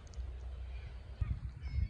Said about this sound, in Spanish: Son gaviotas, muchísimas gaviotas, vean nada más.